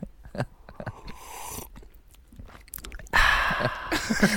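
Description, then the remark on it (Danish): Wet slurping noises from a person slurping coffee, sucking in air as if sipping it hot, scattered little smacks first, then a long loud hissing slurp that swells at the end. “så drak man sin kaffe sådan her. Jamen, Utrolig tæt på den, man lige havde vundet over. Og slubrede virkelig irriterende.”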